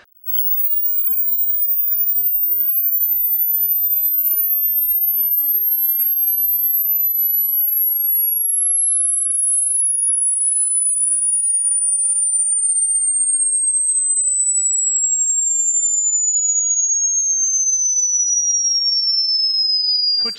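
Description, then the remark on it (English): A pure hearing-test tone, played for an audience in a church with an age number shown on a screen, plays alone for about twenty seconds, starting piercingly high and gliding smoothly and steadily lower in pitch at an even, constant loudness. “Now, you've got to be honest, though, because it's going to go, there's a, a noise that we're going to hear, and it's going to increase and on the screen is going to be an age number.”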